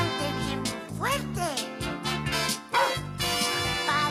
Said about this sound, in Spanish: El perro.